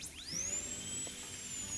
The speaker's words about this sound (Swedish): Och han tar upp sin Philips borrmaskin och han börjar borra i sönder en av däcken.